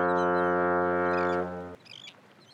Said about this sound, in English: Well, that's the sound of the horn and the boats by the dock.